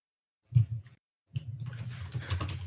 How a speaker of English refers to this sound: Okay, no, no, no. I was just typing in chat.